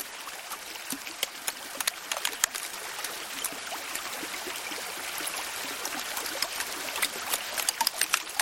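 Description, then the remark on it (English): Melting glacier ice at Alaska's Columbia Glacier crackles and pops continuously, with dense sharp clicks and fizzing snaps over a soft watery wash, steady with no voices. “Jonathan Storm recorded the sounds of ice melting at Alaska's Columbia Glacier.”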